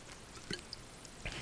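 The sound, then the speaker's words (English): Quiet liquid sounds as someone handles and sips water, with two brief sloshing, dripping blips about a second apart against a soft background hiss. No one speaks. “I just grabbed some water.”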